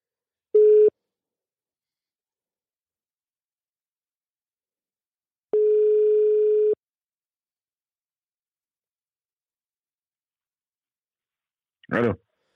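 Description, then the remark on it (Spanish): Telephone ringback tone: a short steady beep, then a longer ring several seconds later, separated by silence. A brief voice answers right at the end. “No, no le he dicho, voy a llamarlo y voy a preguntarle eh, cómo está.”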